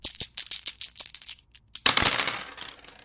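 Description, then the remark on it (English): A handful of dice rattle in a cup with quick, bright clicks, then tumble out onto a hard surface with a clattering roll that settles and fades. Fairly loud, no voices. “Oh, why that sounds like a set of dice being rolled.”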